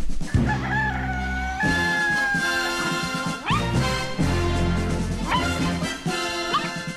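A dog barks and yelps over loud, busy music of the show open of the Wake Up Crew morning radio show on WGNS, with animal-like calls rising above a steady beat and no one speaking.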